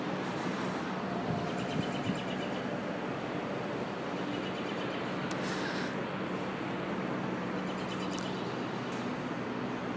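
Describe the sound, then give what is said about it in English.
A steady, continuous rumble of tour bus engines idling and piping smoke into an already smoky town, with a low droning hum under broad outdoor noise for the whole stretch and no one speaking. “Can you hear the hubbub? All the tour buses' engines piping smoke into this already smoky town.”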